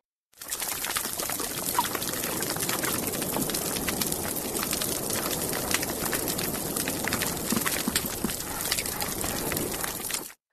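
Dense underwater crackling and popping from a healthy coral reef, with scattered grinding crunches of fish chewing on coral, steady and busy throughout with no voices.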